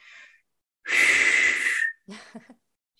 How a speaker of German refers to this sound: Und ihr könnt mich jetzt nicht sehen, aber der Unterschied ist, ich mache ein Geräusch zwischen den Lippen und pfeife oder ich mache ein Geräusch mit meinen Stimmbändern und mein Mund ist wirklich offen und ich töne wirklich.